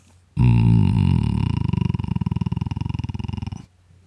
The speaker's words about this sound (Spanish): El vocal fry es una de las terapias más saludables para la voz. En español nos, referimos a este sonido como el susurro de voz sin esfuerzo. Escucha el ejemplo a continuación.